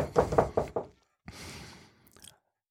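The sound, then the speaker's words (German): Four firm knocks on a hotel room door by security guards trying to get in, in quick, even succession and fairly loud, then a pause and about a second of rough, scraping rustle before it fades out. “Da kommt auch schon der Werkstu Werkschutz und klopft an die Tür und will eindringen.”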